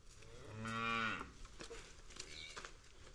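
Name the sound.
cows mooing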